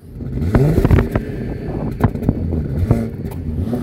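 A six-cylinder car engine, on a car with a sunroof and M package in the Land van Maas en Wal, Netherlands, revs, its deep rumble rising and falling with a few sharp clattering knocks over a steady mechanical drone, with no voices.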